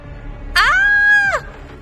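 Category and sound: sound effect, woman's loud scream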